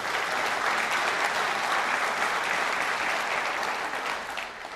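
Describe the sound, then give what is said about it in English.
An audience claps steadily for several seconds, a dense, even wash of many hands that stays loud throughout and begins to thin slightly at the very end. No one speaks. “That's one of the reasons we don't have clapping.”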